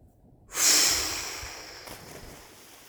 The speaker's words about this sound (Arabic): مسكت ميرا كيس الزبالة وخلت المي تحملها وتكبها من الفتحة بأعلى الحوت على شكل نافورة